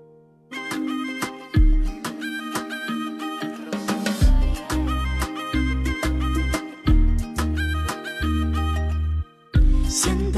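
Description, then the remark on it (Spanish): An instrumental song intro, from a song released in August 2021, plays on its own: steady, bright melodic chords over a punchy bass line that hits in regular pulses, fairly loud, with no voices. “con esta canción que, bueno, salió del corazón.”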